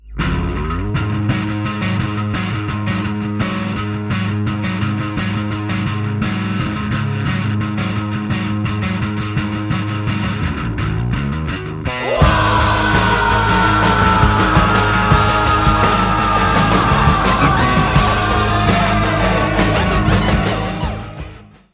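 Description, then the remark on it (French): A heavy, distorted bass line plays nearly alone for about twelve seconds as a short lead-in before a new verse, then the full band crashes back in loudly with pounding drums and a raw screamed vocal. “Et ça va créer un petit creux histoire de donner de la place à la batterie et au cri qui revient tout péter.”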